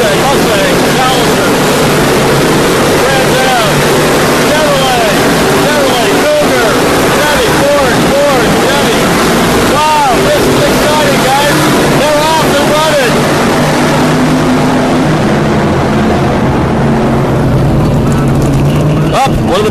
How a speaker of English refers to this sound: Now I'm standing over here in pit row, and actually, when the cars come off the turn and head up the straightaway here underneath the bridge, there's actually a clock there